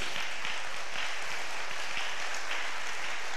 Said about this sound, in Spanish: Yo creo que hoy, aprovechando que es el Día del Padre, debemos de celebrar todos los sacrificios que hacen los papás para llegar en segundo, para poner a su familia en primero. Entonces podemos celebrarlos con un fuerte aplauso